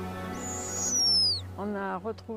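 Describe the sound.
A snowy owl chick gives one long, high, thin descending screech, clear and fairly loud over a low steady hum, before a man's voice starts talking.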